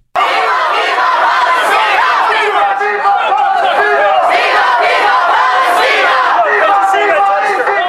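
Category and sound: crowd, protest crowd chanting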